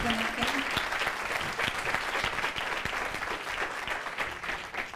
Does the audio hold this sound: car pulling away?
no